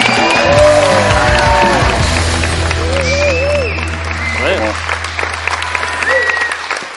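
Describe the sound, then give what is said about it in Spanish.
An audience breaks into sustained applause, a dense wash of clapping that stays loud throughout, with scattered voices and whoops mixed in over a low steady hum. “Una aplauso para él que está aquí.”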